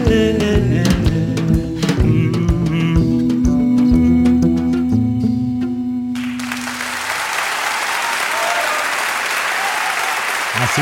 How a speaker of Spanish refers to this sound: Así le aplaudían, mirá. Sí. Más o menos así fue. El tremendo aplauso que le brindaron a Norita Cortiñas cuando, bueno, no, anoche, viernes, no, el viernes anterior.